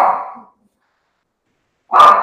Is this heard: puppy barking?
yes